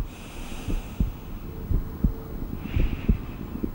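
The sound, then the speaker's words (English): A steady heartbeat thumps in paired lub-dub beats, low and muffled, repeating at a calm even pace over a faint background hum and hiss, with no voices. “a battery of detectors monitor and record the rate and depth of breathing, heart rate and blood oxygen levels, and the electrical activity of every heartbeat.”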